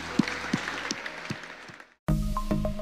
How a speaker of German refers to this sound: Lass uns einen Applaus geben.